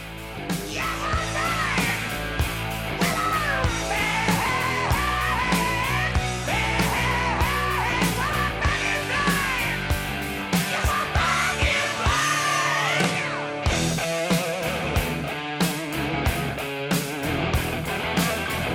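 A loud hard rock song plays throughout, with driving drums, distorted electric guitars and a raspy, shouting male vocal over a steady heavy beat.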